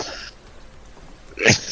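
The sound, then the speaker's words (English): A short, sharp sneeze bursts out near the end, preceded by a brief breathy hiss at the start, with quiet background in between and no talking. “Bless you.”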